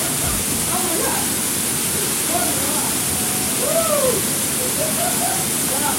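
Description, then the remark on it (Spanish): Steady, loud roar of a double waterfall crashing into a rock pool, heard from inside the cascade beneath a giant rock: a dense unbroken rush of falling water that fills the whole scene, with faint voices barely audible beneath it. “Se escucha el ruido así cayendo el agua.”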